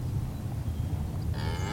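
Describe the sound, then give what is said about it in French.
Cattle on a dairy and beef farm moo in a low, droning bellow that carries through the whole moment, with another cow's call joining near the end, brighter and rising in pitch. No one speaks. “Gavalan est éleveur en production laitière et viande bovine.”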